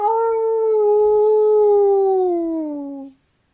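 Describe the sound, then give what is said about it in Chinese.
A single long howl, given like a wolf with full strength while looking up at the golden moon, holds a steady, fairly high pitch. It then sinks gradually lower before cutting off after about three seconds. It is loud and clear, with nothing else underneath. “莫卡抬起头，看着金色的月亮，使出浑身的力气，就像狼一样，放声嚎叫起来。”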